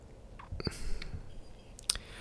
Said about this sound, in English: I hear like my mustache. I hear my facial hair. I hear I hear my facial hair like rustling through like the you hear that? That it this right here? You hear that? That is my mustache. And when I talk, my mustache moves.